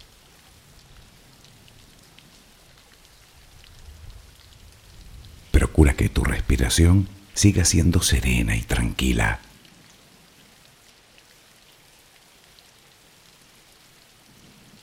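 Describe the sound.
Steady, soft rain hisses evenly from start to finish as a background to a guided sleep relaxation, a constant patter with no breaks, while a calm voice speaks briefly over it in the middle.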